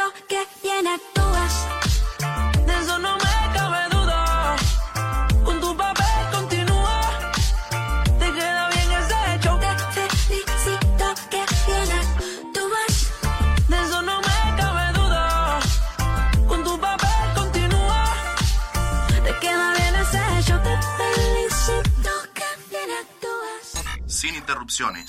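A catchy Latin pop song plays loud and full, with sung vocals over a steady, driving beat and punchy bass, continuing throughout with only a brief dip near the end.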